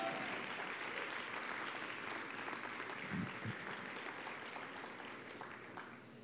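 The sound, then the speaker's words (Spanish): An audience at City Church Oaxaca applauds steadily for about six seconds, a dense wash of many hands clapping at even loudness that tapers slightly toward the end, with no voices standing out. “Es más, ¿cómo no se dan a sí mismo un aplauso por lo que Dios está haciendo aquí?”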